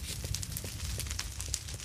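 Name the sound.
crackling fire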